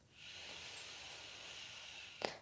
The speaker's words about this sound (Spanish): Vas a inhalar profundo por tu nariz.